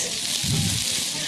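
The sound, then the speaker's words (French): A steady, bright hiss of courgettes sizzling in a frying pan, broad and crackly throughout, with a brief low murmur of voice partway through. “Vous êtes en train de vous dire que ça marche pas chez vous et que ça grésille parce qu'on a une mauvaise liaison, mais pas du tout. Ce sont les courgettes.”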